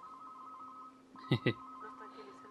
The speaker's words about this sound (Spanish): el pinche teléfono, pero no. Está en algún lugar